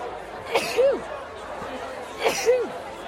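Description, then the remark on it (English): Two sharp sneezes, each a sudden burst with a short voiced tail, about two seconds apart. They are fairly loud over the steady murmur of a busy, chattering crowd inside a drinking tent at Harrogate. “I just sneezed.”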